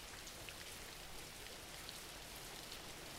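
Steady rain pours down without a break, a dense hiss of drops with occasional brighter taps on a surface. Quiet and constant, with no voices.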